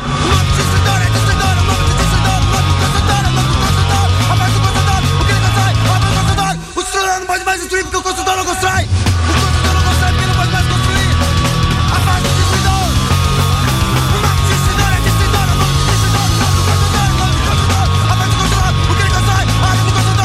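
A loud, dense punk rock song with shouted vocals over distorted guitars and pounding drums, driving nonstop apart from a brief thinner break early on.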